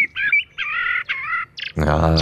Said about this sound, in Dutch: maar dan dus de merel.